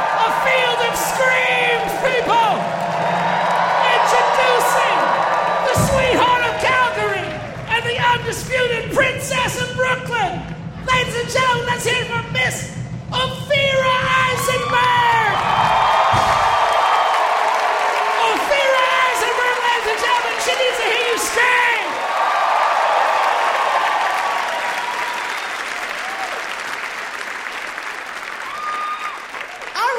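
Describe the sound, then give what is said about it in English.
A live audience in New York City at a taping of the show Ask Me Another claps and cheers loudly and steadily for about thirty seconds, with whoops rising above the dense applause and a low hum underneath that fades midway. “People of New York City, it's star time! We need to see you see your hands, people!”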